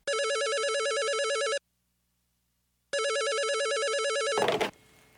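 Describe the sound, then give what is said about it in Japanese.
A telephone rings in two long electronic bursts separated by a pause of silence, loud, as a call is placed to an advice call centre, then a brief clatter as the receiver is picked up. “ではコールセンターに電話をかけます”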